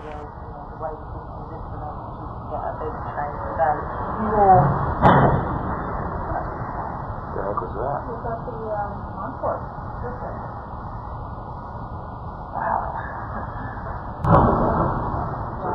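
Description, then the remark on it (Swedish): A muffled, low-fidelity recording, made by a person working in an adjacent building and featured in the film Loose Change, of a plane crash with a sharp booming impact, followed about nine seconds later by a second explosion, over steady background rumble and faint voices. “A second explosion can be heard nine seconds after the crash.”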